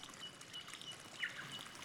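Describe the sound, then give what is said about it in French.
A small stream trickles and babbles steadily through a cedar and fern forest a few kilometres from Seattle, a soft continuous wash of water, with a few faint bird chirps scattered over it. “Un petit ruisseau court, non loin de là.”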